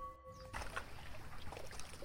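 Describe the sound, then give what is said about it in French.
A small boat moving along a river near islands at the mouth of the Atlantic Ocean, carrying caregivers who throw bananas and coconuts toward the shore. A steady low rumble and wash of water throughout, fairly loud, briefly preceded by a faint high tone. “Depuis leur petit bateau, les soignants lancent bananes et noix de coco vers la terre ferme.”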